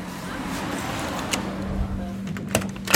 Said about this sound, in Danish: Han lukker døren ind til ren kost og krop bag sig.